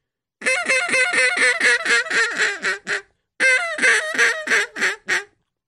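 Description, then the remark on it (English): A duck call blown as a Cajun squeal: a rapid run of sharp, squeaky quacking notes, each note cut off with the back of the throat rather than the tongue tip, giving a little squeak at the end; two bursts separated by a short pause, loud, with no talking. “That's a Cajun squeal.”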